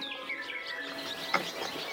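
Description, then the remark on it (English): Birds chirp and tweet in a busy overlapping chorus, with quick high-pitched calls and warbling notes at a steady moderate loudness, and no voices. “There's birds, obviously.”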